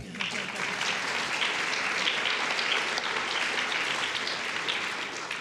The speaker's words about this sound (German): Die Beuth-Hochschule, da sollten wir ruhig mal klatschen.